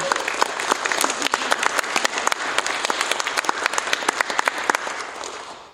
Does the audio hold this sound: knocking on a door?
no